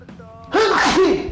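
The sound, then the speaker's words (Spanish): A single loud sneeze bursts out after a brief indrawn breath, with a voiced, slightly wavering tail trailing off; no one talks. “Está bien. Salud.”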